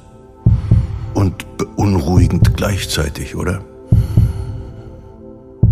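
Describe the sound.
A muffled human heartbeat thumps steadily in paired low beats, with soft breathing noise around it, picked up in a studio by a microphone meant for speech. Someone talks over the middle of it before the heartbeat continues on its own.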